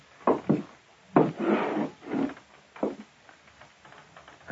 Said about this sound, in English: Then I heard somebody coming down the hall outside my door. I thought for a moment they might be going past